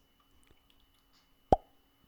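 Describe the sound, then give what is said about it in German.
A single sharp, short plop from a water glass, standing alone against a quiet background with a brief resonant tail. “Ich kann's nicht, das war mein Wasserglas.”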